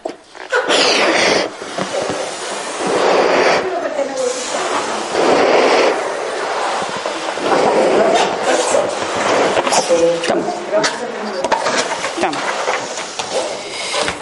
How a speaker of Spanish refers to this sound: pues lo vamos a inflar el globo ahora mismo y vamos a poner toda la conciencia en algo de lo que nos queramos liberar.